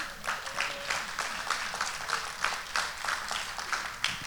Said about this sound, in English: By the way, my, my new grandson in the house. Y'all clap